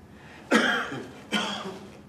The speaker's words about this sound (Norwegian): Og inni denne ikke-stillheten lød plutselig et host. Et forsiktig host. Et host som dekket over en stor og rumlende stemme.